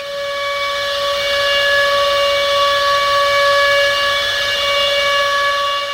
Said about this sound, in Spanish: durmientes que luego de caer rendidos sueñan con el mar embravecido que empuja violento sus olas solo para despertar y darse cuenta de que se trata de la alarma, porque van a bombardear.